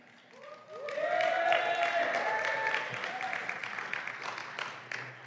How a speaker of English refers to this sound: Thank you for clapping.